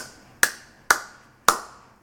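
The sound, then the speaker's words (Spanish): Three hollow, cupped-hand claps spaced evenly about half a second apart, each a sharp pop with a resonant, slightly ringing tail that fades quickly. No one speaks. “Porque cuando tú estás justo enfrente de una escalera y tú, tú aplaudes, pero tiene que ser un aplauso no seco, ¿sabes?”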